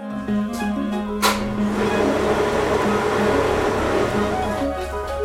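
A blender whirs steadily, churning cooked plant pulp for making homemade paper, with a loud, constant motor drone and a faint clatter near the start. No one speaks.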